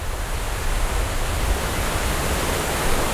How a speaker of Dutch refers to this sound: En overal watervallen.